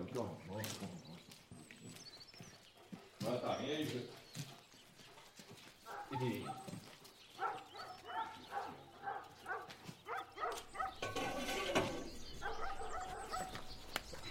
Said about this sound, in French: Pousse-toi, le chien, qu'est-ce que tu bois